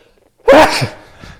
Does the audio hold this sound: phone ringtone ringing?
no